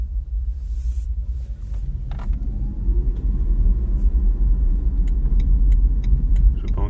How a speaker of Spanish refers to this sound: Muy bien, y ahora voy a... por donde me voy a meter ahora, voy a dar un pequeño aceleroncillo para ver si escucháis el ruido del zumbido del motor acelerándose.